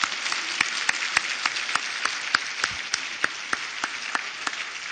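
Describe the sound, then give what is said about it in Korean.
Steady audience applause for a church choir, a dense wash of many hands clapping with a few sharper individual claps standing out at a lively, even pace. No one speaks. “다 외워서 보통 보통 열정이 아닌데 우리 한번 그 열정에 감동의 박수 한번 드려보죠.”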